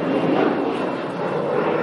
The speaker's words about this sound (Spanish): disculpad el avión